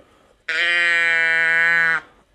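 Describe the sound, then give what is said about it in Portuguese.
A single drawn-out mechanical bleat from a little toy sound box, imitating a Swiss goat or cow, holding one steady buzzy pitch for about a second and a half before cutting off abruptly. Loud, with no talking. “uma cabra suíça ou uma vaca suíça, ou o que é isto.”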